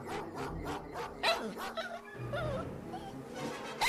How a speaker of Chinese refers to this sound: 索尼娅的问题让斗牛犬顿时火冒三丈，它可怕的呜呜叫着，要挣脱狗链冲过来。